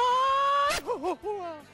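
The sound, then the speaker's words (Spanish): A mariachi grito during a live broadcast: one voice holds a long, high, piercing yell, then breaks into a quick warbling trill of wavering cries that slide up and down, loud and with no other talk. “Y antes de que vuelvan a tocar para acabar el directo, que nos hagan ese, no sé si se llama así, pero ese grito mariachi.”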